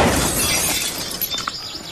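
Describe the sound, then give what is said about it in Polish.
Greenhouse glass smashes loudly all at once as a ball hits it, a burst of breaking panes followed by scattered tinkling shards falling and settling over the next second or so, with no voices present. “Jak nic w moją szklarnię trafi.”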